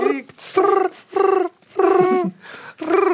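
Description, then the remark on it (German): A person imitates cricket chirping with their voice, making about five drawn-out, tonal chirps in a steady rhythm, fairly loud, with no other talking. “Äh, können wir Grillenzirpen eigentlich einblenden? kannst, du, kannst du keine nachmachen? Die kann ich tatsächlich.”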